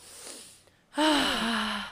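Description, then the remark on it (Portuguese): A person doing an energizing breathing exercise takes a quiet inhale, then a loud, forceful breath out with a voiced, sighing tone that drops in pitch over about a second. “Então, para ir ativando essa energia, nós começamos a fazer essa respiração, que é.”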